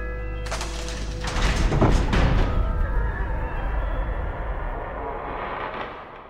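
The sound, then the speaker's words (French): A heavy door grinds open, starting with a sudden rumbling onset, building to a loud scraping surge, then slowly fading into a low, lingering reverberant drone. No voices are heard. “Et la porte s'ouvrit.”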